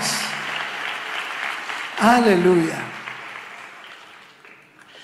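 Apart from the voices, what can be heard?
audience applauding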